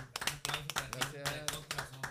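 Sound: applause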